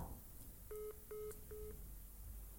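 Three short electronic phone call tones beep in quick, even succession as a call comes in from Croatia, slightly tinny as if over a speakerphone, with faint background hiss and no talking.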